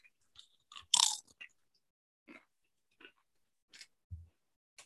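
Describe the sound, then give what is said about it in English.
Crunching of Flaming Hot tortilla chips, a loud snapping bite followed by several quieter, irregular chewing crunches with brief pauses and a low thump near the end; no talking. “Yeah, give me that crunch. That's great crunch.”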